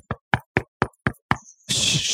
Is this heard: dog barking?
no